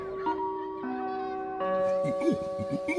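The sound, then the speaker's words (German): A sustained ringing bell tone opens, shifting pitch in steps, then a series of rising-and-falling hooting orangutan calls breaks in over it, moderately loud; a sound puzzle combining a schoolyard with children and orangutan calls. “Und zusammengesetzt war unser kleines Geräuscherätsel eine Orang-Utan-Schule.”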